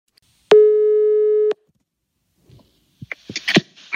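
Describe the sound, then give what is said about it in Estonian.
A telephone call to Siim Kallas: a single steady ringing tone sounds for about a second, a flat mid-pitched beep with faint harmonics. Silence follows, then brief clicks and rustling noises as the call seems to connect. “paar päeva hiljem saatis Daniel mulle tema numbri ja ütles, et Siim Kallas ootab mu kõnet.”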